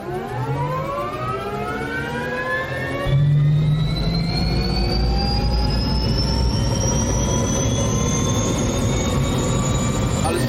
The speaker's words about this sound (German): Also deswegen vielleicht nochmal kurz in den Hubschrauber reinhören.